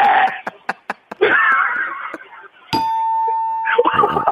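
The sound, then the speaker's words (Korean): A person vocally mimics a coffee machine grinding coffee beans: a run of short choppy bursts, then a longer rough whirring stretch, and finally a steady high buzzing tone, fairly loud. “이게 이제 커피 원두 가는 소리라 아, 아.”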